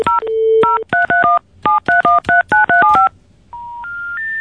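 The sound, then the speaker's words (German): A random number is dialed on the Deutsche Telekom network: a quick series of about a dozen telephone keypad tones, short two-pitch beeps in an uneven rhythm, followed by three rising steady tones like an out-of-service signal. No one speaks. “Ich mache nochmal eine Zufallsanwahl, ja?”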